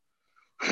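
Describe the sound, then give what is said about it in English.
A single loud sneeze: a faint, thin wheezy intake of breath followed by a sudden explosive burst of noise, with no talking. “bless you, my friend.”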